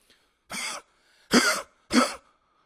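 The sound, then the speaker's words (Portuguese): A person imitates the harsh, very loud cough of a dog with a trachea problem: three rough, honking bursts, the last two louder, separated by short pauses, with no talking. “o meu cão, ele tem um problema na traqueia que ele começa a tossir muito, muito alto. Sabem aquela tosse a cão, tipo...”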